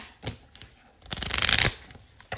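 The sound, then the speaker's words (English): A deck of tarot cards is shuffled during a tarot card reading: a few soft taps, then a dense, rapid riffling burst lasting about half a second, followed by a quick final snap. “I'm going to give one more little shuffle here.”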